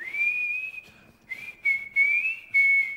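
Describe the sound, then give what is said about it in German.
A person whistles a short, wavering tune imitating the melody played by a scrap collectors' truck, the pitch sliding and holding across several phrases, clear with no talking. “Jedenfalls kommt so eine Pfeifenmelodie und dann Boah, du hast gerade so richtig hässlich gepfiffen, Alter.”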